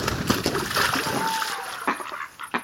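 A European beaver parent slaps the water with its long flat tail to raise an alarm as mallards approach: a few sharp, splashy smacks at irregular intervals over continuous sloshing and splattering water.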